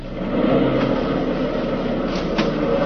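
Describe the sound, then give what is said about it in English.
A car engine idles and strains while reversing, a steady loud rumble, with a few brief scraping brushes as it pushes backward through hedges. “Like backing the car through a jungle have to get the clippers after him pretty soon.”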